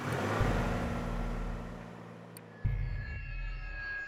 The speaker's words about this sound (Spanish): Rápidamente aviento la lata de gasolina en mi auto y conduzco hacia la casa.